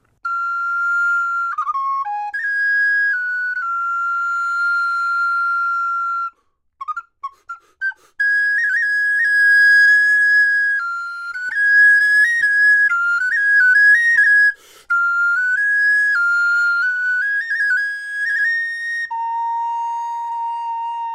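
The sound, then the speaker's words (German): A solo recorder plays a bright, birdlike melody of sustained high notes and quick warbling ornaments, clear, with a brief pause early on before the tune resumes. The piece is The English Nightingale by Dutch composer Jacob van Eyck, played by Swiss recorder player Maurice Steger in a radio studio. “The English Nightingale heißt dieses Stück des holländischen Komponisten Jakob van Eyck.”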